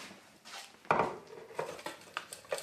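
Kitchen background with dishes and cutlery clinking: one louder clatter early on, then a scattering of lighter, irregular clinks and taps over a soft, steady hiss, with no voices.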